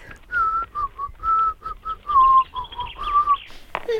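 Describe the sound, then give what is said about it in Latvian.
A cheerful whistled tune of short, bouncy notes in quick rhythmic phrases, whistled clearly by a young herdsman, with no talking over it. “Ganīčs pat sāka no prieka svilpēt.”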